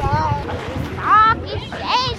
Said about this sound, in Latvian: Vasarā baudīt siltu un saulainu laiku cilvēki izvēlas pie dažādām ūdens tilpnēm, meklējot veldzi un atpūtu pie ezeriem, upēm vai piemājas dīķiem, jo lielāka svēlme, jo publiskajās peldvietās vairāk cilvēku un kņādas.